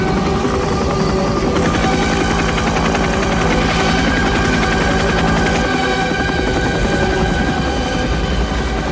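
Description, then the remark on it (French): Helicopter rotors thud in a fast, steady chop beneath loud, sweeping orchestral music by Richard Wagner, with bursts like gunfire mixed in, in a scene from Coppola's film with helicopters, napalm and surfing and Robert Duvall as a Marines colonel; a dense, continuous film-scene roar with no talking. “Voilà, les hélicoptères, le napalm, puis le surf.”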